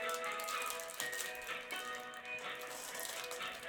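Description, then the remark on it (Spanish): A phone ringback tone plays: bright, busy music with a rattling, clattering percussive texture, steady and continuous at moderate volume for a few seconds, with no one talking. “Lo que oíste es un contestón.”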